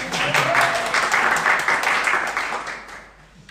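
A crowd applauds with dense, steady clapping that holds strong for about three seconds, then thins and fades away toward the end.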